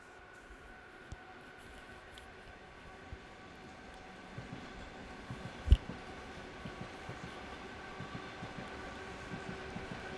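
A train departing, its steady rumble and hum joined by rhythmic rail clacks that grow more frequent, with one sharp loud clunk partway through. No one speaks.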